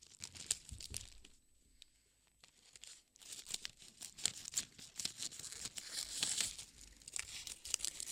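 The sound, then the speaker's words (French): Scissors cut gift wrapping paper to size for wrapping around a toilet paper roll, crisp crinkling and rustling snips in an uneven run, with a brief quieter lull near the start and no one talking. “Tout d'abord, nous prenons le papier Ensuite, on le découpe.”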